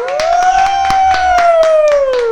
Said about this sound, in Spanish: Por gusto, venga, un aplauso.